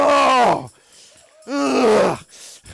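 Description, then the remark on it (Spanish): A man's voice imitates a lion's roar in two long, throaty bursts with falling pitch, separated by a brief pause, loud and raspy, with no words spoken. “Y tienes que levantar este rugido.”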